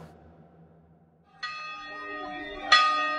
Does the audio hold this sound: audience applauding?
no